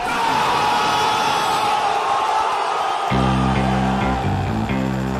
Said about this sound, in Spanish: Y con este cálido aplauso, en otra jornada muy especial recibimos entonces a ….